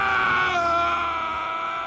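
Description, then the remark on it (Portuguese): A person imitates the battle cry of Shan Yu, the villain and leader of the Huns in Mulan, with a loud, sustained, strained scream lasting nearly two seconds, held at high intensity without pause. “Que pra mim tem o melhor grito de guerra do, de todos os vilões que eu já vi.”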